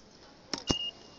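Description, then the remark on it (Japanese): A short clack as an IC card is tapped on a ticket gate reader at a train station for the Gakuentoshi Line, followed at once by a single high electronic beep lasting a fraction of a second, amid quiet station background. “よし乗りますよし電車でゴーゴーゴーゴーゴーよしピッてやります”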